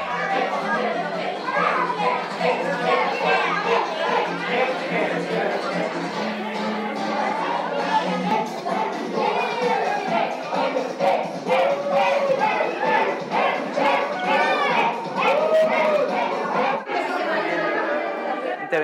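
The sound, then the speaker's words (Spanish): A festive crowd dancing in a circle chants the classic party cry "eh, eh, eh," many voices including children shouting together over dense, continuous chatter that stays loud throughout. “Incluso por ahí se empezó a escuchar el clásico grito de las fiestas, ya sabes, el ¡eh, eh, eh!”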